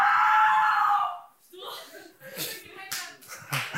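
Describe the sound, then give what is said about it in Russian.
A loud, sustained high whoop or shout gives way to a short burst of scattered, uneven applause, with a few sharp hand claps and some shuffling and voices mixed in. “А, это типа аплодисмента, да?”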